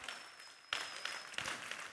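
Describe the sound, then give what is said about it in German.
An audience claps steadily for the service team, a dense patter of many hands, swelling briefly partway through and continuing without voices. “Ein Applaus für unser herrliches Service-Team.”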